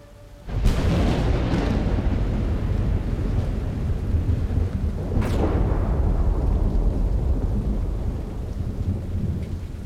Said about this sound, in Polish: Ludzie gadali potem, że potężna burza przyszła znikąd, jakby czaiła się w piekle albo nieopodal na terenie starych jatek.